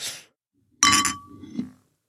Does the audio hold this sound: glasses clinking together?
yes